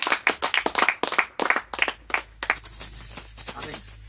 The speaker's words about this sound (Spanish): Amén. A su nombre. Le dar palmas a Jesucristo.